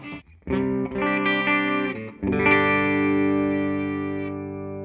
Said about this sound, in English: Turn the treble up just a smidge. might be too much. Let's turn that treble back down back down to about noon. Okay, so honestly, with that amp, I kind of like the sound of that as a clean tone. I could, I could, I could do that.